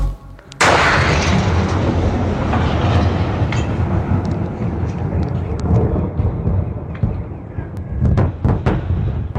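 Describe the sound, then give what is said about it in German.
A sudden, powerful boom from a larger meteorite racing through the Earth's atmosphere breaks out, then rolls on as a deep, sustained rumble punctuated by scattered sharp cracks, loud like heavy thunder. “so tätscht es, wenn ein größerer Meteorit durch die Erdatmosphäre rast”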